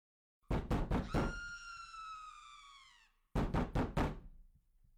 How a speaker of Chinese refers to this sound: 匆匆赶到之后，我们发现原来有人被门把手反锁在洗手间里面。这人正不停的砸门、尖叫，